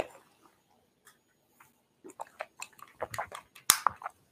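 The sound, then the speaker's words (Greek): Someone drinking water during a YouTube live stream: after a quiet pause, a run of soft wet sips and gulps with small mouth clicks, ending with a sharp tap and a few more swallows. No one speaks. “Πίνω και το νερό μου.”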